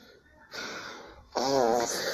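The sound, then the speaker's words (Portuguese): A squeaky, fart-like rubbing sound of a bare foot sliding on a tile floor by a person sitting on the floor, first a soft hissy drag, then a louder wavering squeal lasting about a second. “Esse barulho aqui não é meu peido, é que eu tô deitado no, eu tô, não tô deitado, eu tô eu tô sentado no chão e eu, ó, eu alisei o meu pé no piso, aí fez esse barulho de merda.”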